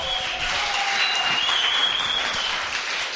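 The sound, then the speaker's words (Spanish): A crowd gives an ovation for el negro Matapaco, breaking into steady, sustained applause, a dense wash of clapping hands that holds at an even, loud level throughout with no voices rising above it. “Ovación para el negro Matapaco.”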